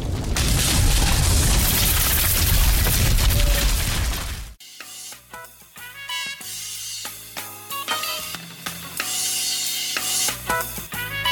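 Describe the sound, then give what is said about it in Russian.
A loud, dense roar of crashing and rumbling fills the first four seconds, a burning building collapsing with a terrible deafening crack, then cuts off abruptly into quieter clattering and tonal musical sounds. “Раздается страшный оглушительный треск. Здание рушится.”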